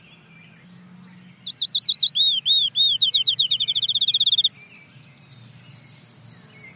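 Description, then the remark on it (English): A field sparrow sings its song: a series of clear, sweet whistled notes that speed up into a rapid trill, over a faint buzz of insects and quieter birds in the background. “That trill is the field sparrow? That's the field sparrow.”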